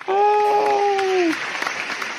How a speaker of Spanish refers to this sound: Eso sí se pueden conservar todavía, los aplausos. Sí, sí, sí. Porque los grabo yo, ¿no? Uno por uno.